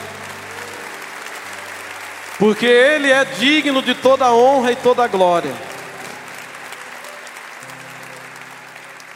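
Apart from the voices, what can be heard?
audience applause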